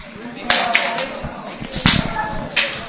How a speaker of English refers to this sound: Slap your neighbor a high five, say, wake up.